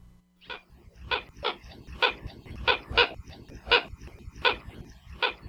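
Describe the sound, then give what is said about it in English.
Hawaiian coot ('alae ke'oke'o), an endangered water bird endemic to Hawaii, calling: a series of about nine short, harsh, bark-like notes repeated at a fairly steady pace, each one loud and abrupt, over a faint low hum. Recording from the Macaulay Library at the Cornell Lab of Ornithology. “alae keokeo, or Hawaiian coots, are water birds that are found on all the main Hawaiian islands except Kaho'olawe and are endemic to Hawaii, meaning that they're found nowhere else in the world.”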